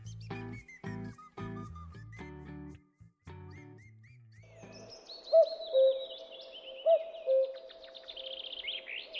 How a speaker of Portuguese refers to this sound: ao toque de dois cucos